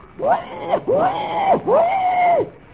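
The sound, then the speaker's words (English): A person imitates a wild boar's cry with three loud, drawn-out squealing calls, each swooping up, holding, then dropping away, back to back. “The cry of the wild boar.”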